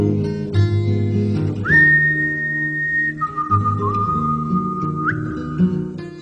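A song with a clear, sustained whistled melody gliding over a steady low accompaniment of harmonic instruments, playing at moderate volume with no voices.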